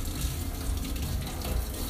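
Tap water runs steadily into a sink while dishes are washed, a continuous hissing splash with small shifting ripples. No one speaks.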